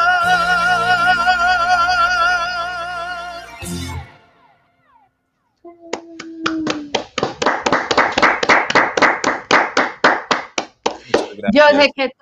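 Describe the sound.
Music with a sustained vibrato melody ends abruptly, and after a brief silence an audience breaks into steady, rhythmic clapping that swells and continues for several seconds with a voice briefly over it.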